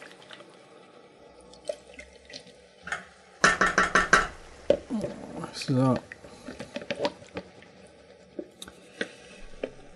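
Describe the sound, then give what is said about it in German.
Small liquid sloshes and light clinks from stirring about two teaspoons of fine potato starch into cold water, with a louder swirling burst midway and scattered ticks around it; a voice speaks briefly. “Ich mache jetzt hier ein bisschen Kartoffelmehl, so Stärke, feine Speisestärke. Rühre die mit dem kalten Wasser an.”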